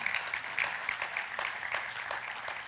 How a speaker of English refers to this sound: yeah, give him a clap for that. Yeah.